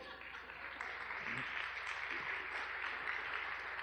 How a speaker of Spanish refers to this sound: ¿Está bien? Dame a mí un aplauso.